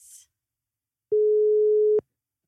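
A single steady electronic phone ringing tone of a call placed from a studio to a co-host on parental leave rings out loudly for under a second, clean and sustained, after a brief soft hiss at the start; no voices are present.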